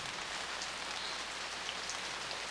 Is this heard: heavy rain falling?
yes